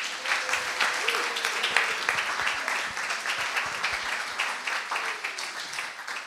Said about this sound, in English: Okay, now those of you who are sitting down, can you just give these guys a round of applause?